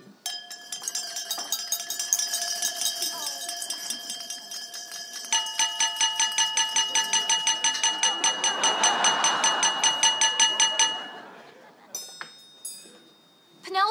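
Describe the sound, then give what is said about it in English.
Many glasses tapped rapidly with utensils at a wedding reception, a bright, steady ringing clatter that builds for about ten seconds under a faint crowd murmur, then stops, leaving a few scattered clinks. “Why don't you clink your glass so they have to kiss?”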